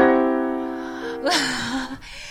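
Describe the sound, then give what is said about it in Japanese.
A C-E-G major chord rings out on an instrument, its tones sustaining and slowly fading for about a second, followed by a brief murmured voice. “これがまだ1個の音だったらいいんですけど、これあのいわゆるドミソとかですね、うん、和音っていう和音っていうを弾くとですね、うんうん、これドミソっていう、”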